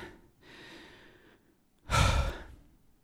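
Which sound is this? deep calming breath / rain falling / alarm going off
deep calming breath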